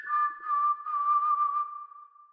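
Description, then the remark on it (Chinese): A single sustained whistle heard in the early morning at 3:03 a.m., on one steady mid-high pitch, wavering only slightly, holding for about two seconds before gradually fading out; it approaches from a distance and then moves away. Nothing else is audible and no one speaks. “凌晨的口哨声”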